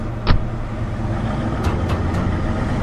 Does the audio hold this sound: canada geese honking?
no